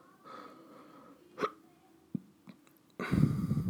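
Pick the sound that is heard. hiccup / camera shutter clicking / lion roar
hiccup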